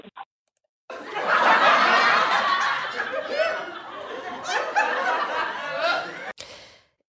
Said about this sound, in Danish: Ja, nu prøvede jeg lige med, med dåselatter i anden halvdel af interviewet.